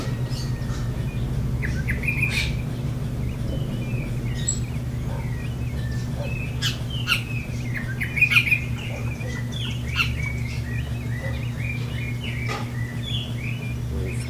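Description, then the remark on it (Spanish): Thrushes sing in tall trees at around 5 in the morning, in scattered, overlapping phrases and chirps, moderately loud, over a steady low background hum with no one talking. “acá nos levantamos a las 5 de la mañana y hay unas mirlitas cantando aquí, unos insontes cantando en los arbolitos altos.”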